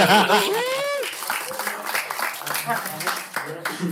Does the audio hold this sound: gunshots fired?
no